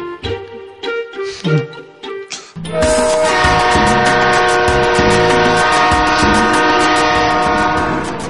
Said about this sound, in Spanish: Al fin, Llegó el tren que esperaba la señora.